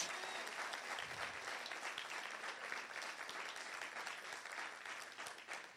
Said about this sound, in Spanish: Vamos, dar un aplauso al Dios que está vivo. Pero un aplauso fuerte a Jesús.